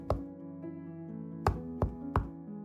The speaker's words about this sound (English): Come in, she called in answer to a knock.